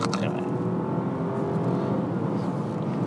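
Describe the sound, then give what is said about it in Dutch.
A smooth, subdued Rolls-Royce engine hum builds gently as the car accelerates, steady and continuous with soft road and cabin noise, no voices. “een gegeven moment hoor je wel wat, maar het is echt heel stil.”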